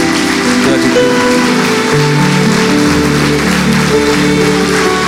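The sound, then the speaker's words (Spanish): An audience claps steadily and continuously for the Lord, a dense crackle of many hands, while sustained keyboard chords hum underneath throughout. “¿Por qué no le aplauda al Señor y le manifiesta su amor?”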